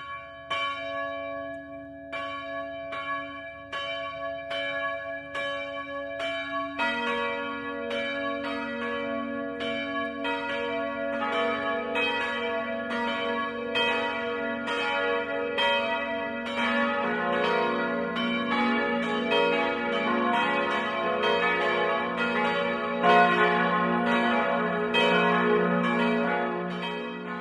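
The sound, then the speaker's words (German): Church bells in Belzheim, Swabia, ring the 12 o'clock midday chime together in a continuous, resonant peal, with more bells joining after a few seconds and the overlapping strikes building into a full, sustained chime with no voices. “Das Mittagsläuten kommt heute aus Belzheim in Schwaben.”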